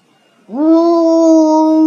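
After a brief silence, a human voice imitates an eerie ghost-wolf howl coming from a cave, read aloud in a children's story: one loud, long tone that swoops upward and then holds steady and unbroken to the end.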